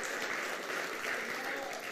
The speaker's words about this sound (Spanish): Aleluya, denle un aplauso a Dios. Eso merece una alabanza. Aleluya.